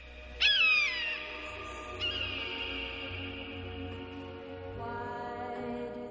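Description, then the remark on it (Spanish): A bird flying in a white sky calls out with a loud, sharp, wavering cry, then a softer second cry, over a steady sustained tonal drone that shifts lower near the end. “pájaro vuela en un cielo blanco.”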